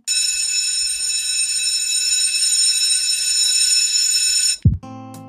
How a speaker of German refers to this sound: Ihr Lieben, die Hofpause ist vorbei. Es hat geklingelt. Wir müssen rein.